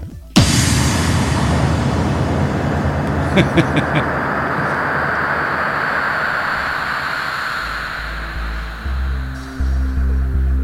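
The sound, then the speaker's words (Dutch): A loud explosion bursts in abruptly, then trails off into a long, roaring rumble of debris and noise that lingers for several seconds, with deep booming thuds near the end. “Even kijken hoor, een explosie.”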